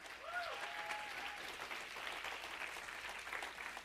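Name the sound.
audience clapping louder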